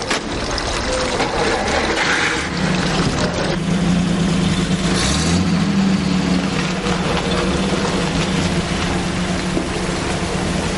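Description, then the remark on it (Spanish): A car engine rumbles steadily for about eleven seconds, a low droning hum over a wash of hiss, with a brief shift in pitch midway as the car pulls away after two people leave a house and get into it. “Al día siguiente, Carol está asomada a la ventana y ve a su madre y Adrián salir de la casa y montarse en un coche.”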